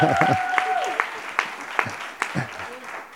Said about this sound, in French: je trouve qu'il faut réapplaudir encore Cathy, parce c'est la première fois qu'elle prêche au culte